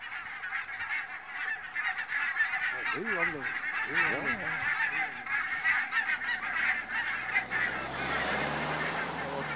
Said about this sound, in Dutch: hier gaan de brandgans. Luister dan de brandgans.